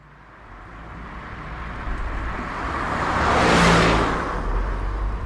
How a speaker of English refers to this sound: We're in Perla's car. Why am I driving? She hates the freeway.